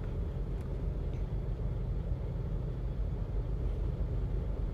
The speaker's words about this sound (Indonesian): saya masih di mobil kak masih guys masih di mobil nih